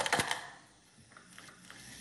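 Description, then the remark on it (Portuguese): A few 50-centavo coins clatter and clink together, a quick bright jingle at the start, followed by softer scattered metallic taps as they settle. “Moedas de 50 centavos.”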